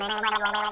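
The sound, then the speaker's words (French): A voice imitates gargling with a short, steady bubbling rattle that wobbles in pitch for under a second, moderately loud and with no words spoken. “Puis là, qui gargouille.”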